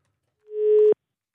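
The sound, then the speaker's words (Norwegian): A single steady, mid-pitched telephone ringing tone on an outgoing call to Live Nelvik swells in over half a second, holds briefly, then cuts off abruptly, with silence on either side and no voices. “Uh, der ringer det.”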